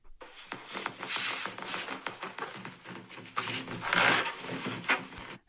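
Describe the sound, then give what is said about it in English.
Balloons being rubbed and squeaked as an ASMR sound effect from a phone app, a continuous run of rubbery squeals and scraping friction with louder bursts, heard alone without any talking. “Balloons.”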